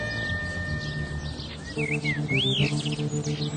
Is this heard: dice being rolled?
no